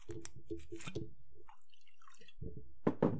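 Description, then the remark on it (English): Jameson whiskey pours into a glass with a quick run of rhythmic glugs, then a pause before a few louder liquid splashes at the end. No one speaks. “So let's go ahead and I'm gonna pour myself another drink real quick.”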